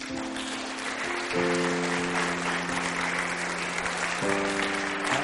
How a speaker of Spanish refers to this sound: Démosle un fuerte aplauso, Señor.